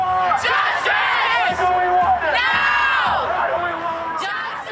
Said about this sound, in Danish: Og så er der også en del, der råber, from the river to the sea, Palestine will be free.